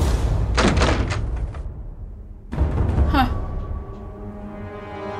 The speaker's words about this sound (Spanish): Entraron. La sala estaba desierta. Oyeron una puerta que se cerraba.